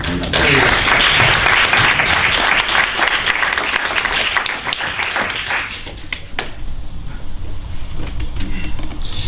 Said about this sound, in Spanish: yo con esto pues les pido eh, un aplauso previo a los miembros de la mesa porque estoy convencido de que ese aplauso previo es va a ser coincidente con el aplauso final que será mucho más fuerte.